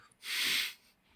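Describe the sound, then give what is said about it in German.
A single sharp sneeze bursts out, a loud, hissy blast of air lasting about half a second, followed by quiet. “Gesundheit.”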